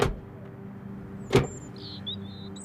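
Two police officers, a woman and a man, get out of a parked car on a residential street in the Copenhagen area in the dark early morning in January: two sharp door clunks about a second apart over a steady low rumble, with faint high squeaks near the end.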